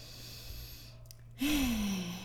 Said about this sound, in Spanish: Ahora sí, te pido por favor, tomas una respiración profunda, inhala,